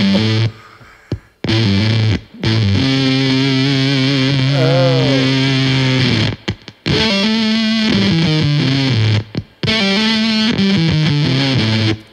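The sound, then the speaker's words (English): Harsh, buzzy distorted guitar from a Game Changer Audio Plasma distortion pedal, which has a Tesla coil in its center; sustained chords with sharp gated stops and restarts, a pitch bend near the middle, loud and saturated with no talking. “after that, uh, back talk is the the plasma pedal, also from Game Changer Audio, and uh, this is like um, I use this a lot when I'm layering parts in the studio if I if I'm doing a power chord or like doing I want to thicken a part up, it's just.”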